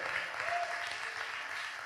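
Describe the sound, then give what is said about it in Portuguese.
A church audience stands and applauds Jesus, a dense wash of many hands clapping at once, sustained and fairly loud throughout with no pauses. “Aplauda. Você vai aplaudir a Jesus.”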